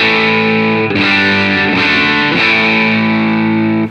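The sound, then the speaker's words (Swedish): A heavily distorted electric guitar, its amp gain turned up to around 11, sustains thick, buzzing chords with a few re-strummed attacks around the first and second seconds. It is dense, almost too compressed and loud throughout, with no talking. “Låter bra, men den blir lite nästan för komprimerad.”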